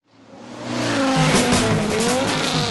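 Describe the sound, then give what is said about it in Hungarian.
In a radio advertisement for the Jazzy 10 Legend Rally in Budapest, a race car engine roars up from silence, its pitch climbing and wavering, while tires squeal in a sustained high-pitched screech over the loud, steady engine noise. “Üljön kormány mögé május 27-én, és ünnepelje egy legendás autóverseny résztvevőjeként a Jazzy Rádió 10 éves születésnapját.”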